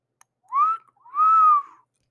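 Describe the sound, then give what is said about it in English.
A two-part wolf whistle: a short rising note, a brief pause, then a longer sustained note that arcs and falls away. Clear, loud and tonal, with no talking over it. “Did I just cat call December?”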